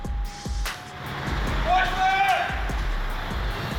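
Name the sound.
truck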